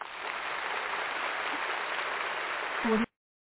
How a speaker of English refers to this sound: I love my applause button because I want you to feel good when you get in here, damn it.